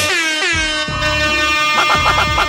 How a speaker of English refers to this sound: Air horn, air horn